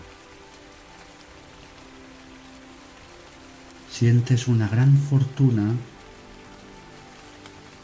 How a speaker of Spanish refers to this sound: El sonido de la lluvia te atrae y observas el espectáculo de la lluvia.